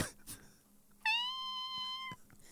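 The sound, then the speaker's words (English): A person mimics a cat's meow: one drawn-out, high, squeaky mew lasting about a second, fairly loud and steady in pitch, with a quiet pause before it and no talking over it. “but then she normally has like a decent meow, but she's a big cat, you know, and so she'll be sitting on the porch or whatever, and she'll just go.”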